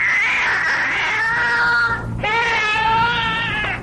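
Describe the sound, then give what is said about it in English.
A cat yowls loudly and insistently in two long, wavering cries with a brief pause between them, sounding agitated, with no other voices. “Uh, I'm, I'm getting a cat. I think I think this poor woman threw a cat in the water.”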